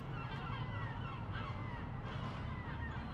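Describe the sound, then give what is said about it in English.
A dense chorus of screaming seagulls, harsh overlapping cries rising and falling without pause over a steady low rumble, loud throughout, with no voices. “The screams of gulls permeate the audio.”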